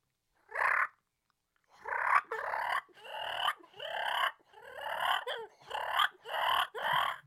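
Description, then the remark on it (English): A turkey fighting purr made on a mouth call: a brief raspy burst, a short pause, then a run of loud, harsh, rolling purrs in quick, uneven pulses, with no talking. “That's that fighting purr.”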